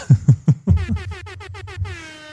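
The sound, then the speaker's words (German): A cartoonish horn sound effect: three quick honks followed by a rapid, warbling run of brassy toots that fades slightly at the end, loud with no one talking. “alle froh, dass die Hupen mittlerweile gehen.”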